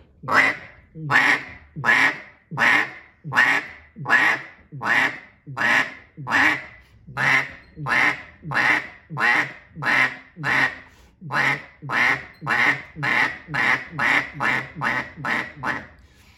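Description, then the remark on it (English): A duck call is blown loudly while the caller vibrates the larynx, making about two dozen nasal quacks in a steady, even rhythm that tightens slightly toward the end, with no other sounds. “You could probably hear that over the video in my throat, and I'm vibrating the larynx right there, getting that quack.”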